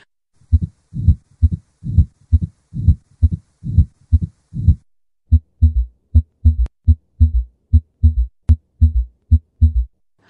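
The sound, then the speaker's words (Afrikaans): A steady heartbeat with a soft whooshing murmur trailing after the second heart sound of each beat, repeating evenly with no voices; a murmur heard as the heart relaxes, arising when the aortic and pulmonary valves do not close enough. “En dit is die aorta klep of die pulmonale klep dan kan mense ook 'n geruis hoor na die tweede hartklank.”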